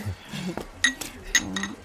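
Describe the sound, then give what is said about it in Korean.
Several bright, ringing clinks of ceramic bowls knocking together as they're picked up and set down while shopping for more bowls, with a couple of sharper taps amid soft handling noise. “아, 그릇도 몇 개 더 사자.”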